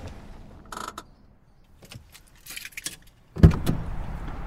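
Keys jingle in short metallic bursts over a low idling car engine, followed by a loud thump like a car door shutting and a steady rumble afterward, as a man parks his car near Gainsborough Street in Boston on June 14, 1962.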